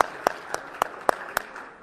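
A church audience claps together to welcome a new church member, a soft wash of applause punctuated by sharper, evenly spaced claps at a steady, fairly quick rhythm. No one speaks.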